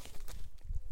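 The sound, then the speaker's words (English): A dog shuffles and pads around a room, with soft, uneven footfalls and muffled low thumps, ending in a brief bright scrape. “That was my dog.”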